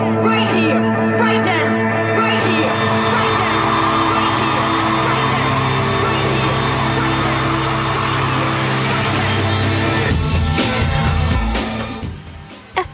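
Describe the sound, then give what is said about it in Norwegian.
A large crowd roars and whoops continuously at a music festival concert, loud, with music droning underneath; the cheering holds steady before fading out near the end. “Men akkurat nå er hun på festival.”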